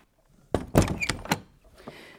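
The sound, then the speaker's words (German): An apartment door is pushed shut with a few solid thuds and a brief latch click, followed by faint rustling; no one speaks. “Ich mache die Tür natürlich wieder zu.”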